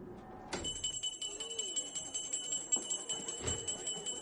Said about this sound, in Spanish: La señora entra en casa con la niña en brazos. La rehén entra tras ella y cierra la puerta.